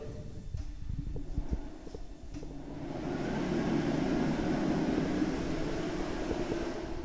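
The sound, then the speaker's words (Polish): A dryer in a bathroom switches on after a few seconds of quieter room noise and blows with a steady, loud whooshing roar until the end, with no one talking. “Suszarka.”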